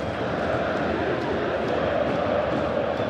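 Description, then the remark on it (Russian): A massive crowd of tens of thousands of football fans at a stadium chants and sings together in a dense, continuous wall of voices, steady and loud throughout with no single speaker standing out. “Распеваются они во все, во все десятки тысяч глоток.”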